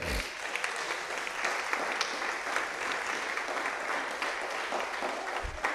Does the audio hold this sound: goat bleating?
no